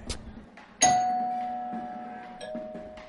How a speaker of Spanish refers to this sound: Toca el timbre.